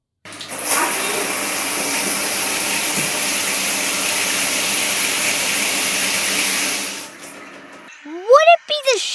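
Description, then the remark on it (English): A shower runs with a steady, dense hiss of water spraying down for about six seconds, then cuts off, followed by a brief burst of a person's voice. “It sounded like the steam and then the water coming down.”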